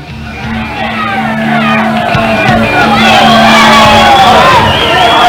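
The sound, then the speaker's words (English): A large crowd cheers loudly and continuously, with overlapping shouts, whoops and bellowing voices forming a dense roar that swells slightly and holds steady for several seconds. “Well, it seems like the people still love me.”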